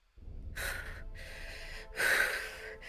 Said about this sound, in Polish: Zaczynam głośno oddychać, żeby no, uspokoić swoją panikę.